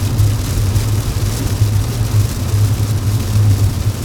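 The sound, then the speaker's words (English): A steady, dense roar of heavy rain drumming on a car, heard from inside during a downpour in Ohio. It is loud and unbroken over the low hum of the running engine. No one speaks. “It is dumping in the great state of Ohio right now, as you can hear.”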